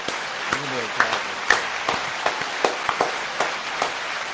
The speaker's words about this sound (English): Let me hear the fucking crowd real quick. Give me the applause real quick.